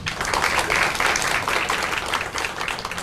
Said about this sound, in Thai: ขอเสียงปรบมือท่านสุดท้ายนะครับ